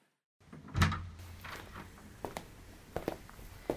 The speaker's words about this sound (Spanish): Empujé la puerta y metí conmigo una burbuja de ese aire helado de la mañana, que se disolvió enseguida contra la calefacción.